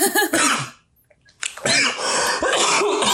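A person, angered during a conversation, coughs and clears their throat in a few rough, harsh bursts, with a short pause in the middle, then a longer stretch of raspy throat clearing. No speech.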